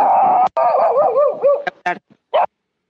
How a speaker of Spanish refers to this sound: de quién es ese perro. Terrible.